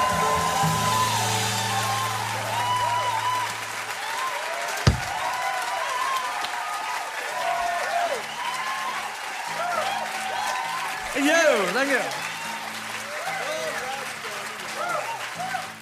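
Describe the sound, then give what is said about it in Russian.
A live concert crowd applauds after a song, with dense, steady clapping mixed with cheers and shouts. A low sustained note rings out at the start before fading under the ovation. “классно, правда, когда атмосфера такая настоящая, дружелюбная, слышно, что всем действительно зрители, я имею в виду, счастливы”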